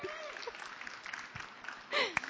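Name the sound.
audience clapping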